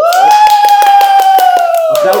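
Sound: applause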